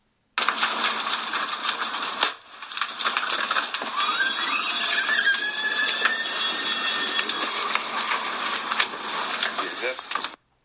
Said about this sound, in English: And you may have heard that pop in there. There's like a little pop. And that was so the video is of my brother's car on fire and the pop was one of his tires exploding.